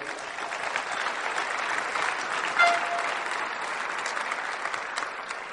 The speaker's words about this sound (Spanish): Gracias. Vamos a darle un fuerte aplauso a estos diamantes.